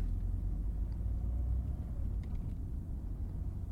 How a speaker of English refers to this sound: Traffic crawls forward as you drive towards the bridge. You're on the entrance ramp, still a ways back.